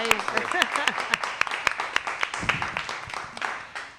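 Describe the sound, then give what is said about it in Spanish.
An audience breaks into steady applause, a dense wash of many hands clapping with sharper individual claps popping out, and a few voices calling out underneath before it starts to thin at the end. “Un aplauso para el sector de”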